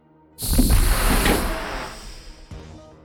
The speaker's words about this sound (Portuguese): Uma das portas se abriu próximo a mim.